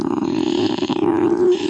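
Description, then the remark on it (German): A human voice imitates the purr of Frau von Schmidt, a cat purring with pleasure as a dog licks her nose, with a steady, low, rumbling drone that holds for under two seconds without pause, fairly loud and alone. “Der Katze schien das sehr zu gefallen, denn sie begann zu schnurren.”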